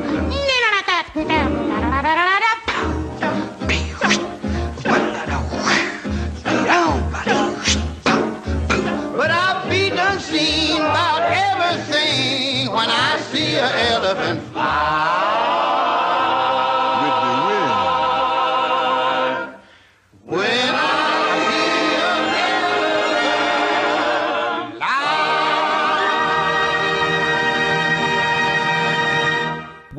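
A jaunty old-fashioned musical number from an animated film plays loudly, with a bouncy rhythmic beat and lively group vocals, pausing briefly near the end before the song carries on.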